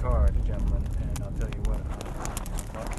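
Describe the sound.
A horse's hooves plod and splash through a sloppy, muddy trail in the rain, irregular wet clops over a steady low rumble, with muffled voices faintly underneath.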